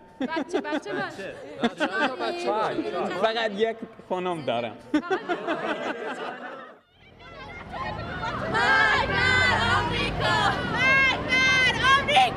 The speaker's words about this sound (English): A blue domed mosque is in the background over my brother's shoulder as crowds of strangers gather around and engulf him to talk, share stories, ask about his life in America.